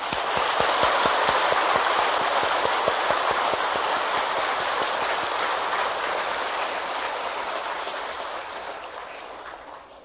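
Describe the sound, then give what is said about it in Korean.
A crowd claps steadily in a dense, continuous wash of applause for a young student's well-written piece at a Buddhist gathering. The applause holds strong for several seconds, then gradually thins and fades toward the end. No one speaks. “돌아서서, 돌아서서, 이제 다시 한번 박수를 쳐주십시오.”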